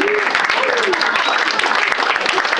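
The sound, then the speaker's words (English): A comedy-show audience applauds steadily, a dense wash of many hands clapping at once, with scattered whoops and faint voices rising through the clatter. “So Punchline, round applause for coming out uh, for yourselves when you could be protesting.”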